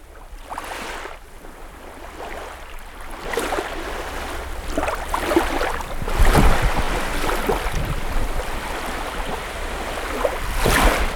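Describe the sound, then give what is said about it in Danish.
Ocean waves breaking in a steady roar of rushing water, with several louder surges and crashes rolling in every few seconds. No voices are heard. “Prøv at stikke hovedet helt ned i en bølge.”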